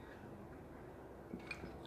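Someone takes a quick sip of water, with soft, faint slurping and swallowing sounds and no talking.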